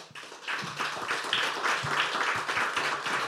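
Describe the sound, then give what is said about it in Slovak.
An audience at a discussion event of the Festival of Freedom in Bardejov, Slovakia, applauds steadily, a dense wash of many overlapping hand claps holding an even loudness throughout, with no voices heard. “Takže ešte raz ďakujeme a poprosím posledný potlesk pre Ľuba Augustínskeho.”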